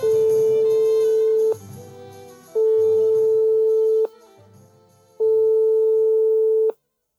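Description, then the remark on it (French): An outgoing phone call's ringing tone: three loud, steady mid-pitched beeps, each about one and a half seconds long, separated by short pauses with a faint hum underneath. “Il faut que je passe un petit coup de fil à quelqu'un et je pense que ce sera directement lui qui va qui va vous en parler.”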